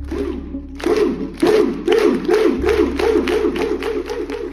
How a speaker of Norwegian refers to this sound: I en kinosal i Oslo står det over 100 personer og roper.